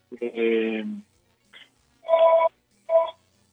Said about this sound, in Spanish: Estamos escuchando que, que suena un teléfono ahí de fondo y pues en cuanto usted no esté listo nos, nos dice